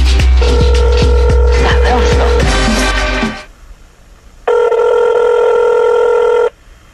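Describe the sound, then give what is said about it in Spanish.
A telephone rings twice in long, loud, steady electronic bursts with a bright buzzing tone as a call is placed to a musical group. The first ring sits over a low hum and rapid ticking, then a short pause before the second ring. “Así es de que suena el teléfono.”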